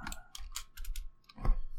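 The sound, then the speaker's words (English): Irregular bursts of typing on a computer keyboard, several quick clicks clustered close together, moderately quiet, with no one speaking. “All right, uh, I should probably start typing, huh?”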